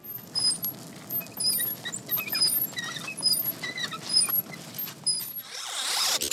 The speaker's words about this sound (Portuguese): É do som aí da bicicletinha do Iluminado e também do Dr. Sono, aquele triciclo maroto que o Dan pedala pelos corredores.